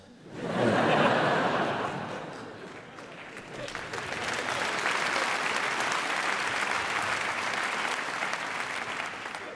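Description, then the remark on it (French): An audience breaks into sustained applause, applauding the fact that Eric Zemmour is alive. Dense clapping swells quickly, dips briefly, then holds steady and loud, with some laughter and chuckles mixed into the crowd noise. “Il doit être content, il y a des gens qui applaudissent le fait qu'il est en vie.”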